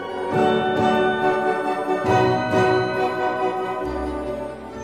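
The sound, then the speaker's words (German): A lively orchestral passage depicting a shower of shooting stars, with sustained strings and brass, bright jingling bell-like sparkle riding on top, and a deeper swell entering near the end; continuous and fairly loud, no voices. “Dieser Sternregen hier, der klingt für mich wie eine wilde Schlittenfahrt mit diesen typischen Glockenklängen im Hintergrund.”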